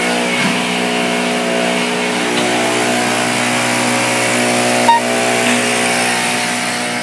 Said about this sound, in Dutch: Oh, bladblazen.